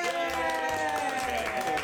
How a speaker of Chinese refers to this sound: 我们今天很多声音哦， 对，超多声音，听那个拍手声音就知道，我们现在是有多少来宾。